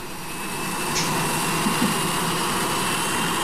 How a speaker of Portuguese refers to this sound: Esperar passar o avião, né? Que pelo amor de Deus. Enfim, mais um avião passando. Poxa vida. Corta, né? E. Poxa vida. É, é, é, rota de avião aqui agora.